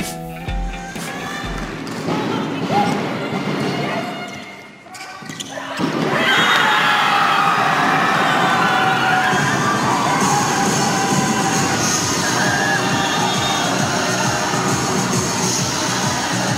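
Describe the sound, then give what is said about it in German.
A loud crowd in the Morgan Arena erupts into sustained cheering and shouting after the title-winning match ball of the DSC-Schmetterlinge's 3-0 win against Stuttgart, with whistles and ball bounces early on, then a dense, steady roar of celebration continuing to the end. “So klang es nach dem Matchball zum Titelgewinn in der Morgan Arena, nachdem die DSC-Schmetterlinge durch die Halle tanzten.”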